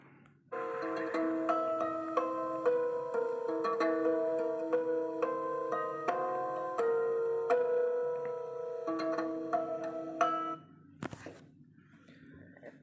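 Plucked lyre strings ring out in a steady run of notes, slightly out of tune, for about ten seconds, followed by a sharp click and a faint lingering tone.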